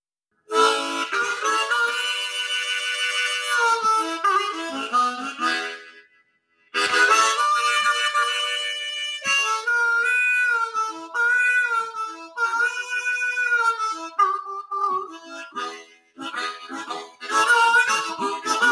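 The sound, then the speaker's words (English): A harmonica plays a solo tune, played by an interview guest on request, with long wavering chords that break off briefly, then return in quicker, choppier phrases. No one talks over it. “Okay, so while I know you play a number of different instruments, um, your harmonica is pretty much always on you, and I see you happen to have it there.”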